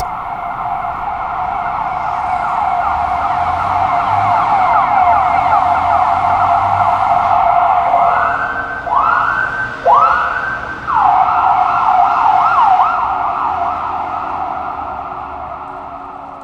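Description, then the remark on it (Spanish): An emergency siren wails steadily with a fast warbling tone during quarantine, fairly loud throughout and gradually approaching, briefly shifting to a few rising whoops midway before resuming its warble; no voices. “Y la sirena va sonando de a poquito. Al principio no estás seguro de si la estás escuchando.”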